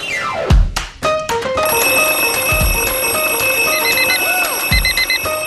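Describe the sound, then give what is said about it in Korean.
A loud wake-up alarm rings: a quick descending swoop gives way to steady electronic ringing tones with repeating high beeps, punctuated by a few deep thumps. No one speaks. It is the wake-up bell of a radio station's morning-call service. “자, 그럼 저희는 조우벨 울리러 가볼까요?”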